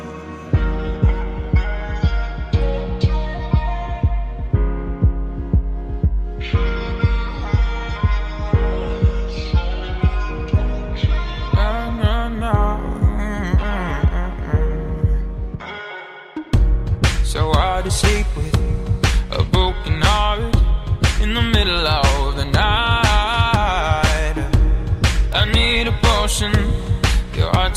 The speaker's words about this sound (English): it's an original song.